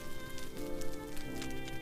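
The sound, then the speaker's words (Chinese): Firewood crackling in a room's fireplace, a steady hiss dotted with small irregular pops and snaps, with a soft sustained tone humming underneath throughout. “听着房间壁炉里温柔而疗愈的柴火燃烧声”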